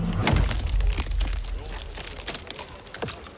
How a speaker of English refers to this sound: After inserting iron wedges into the hollows, he begins to hammer them into the boulder. Another man joins him, and soon there's an immense cracking noise as the rock splits.